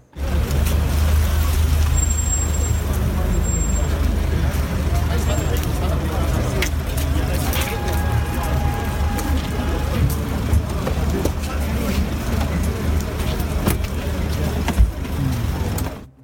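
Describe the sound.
A German car's engine rumbles steadily as the vehicle pulls in, with a low continuous drone, road noise and a brief hissing brake sound, with muffled voices in the background.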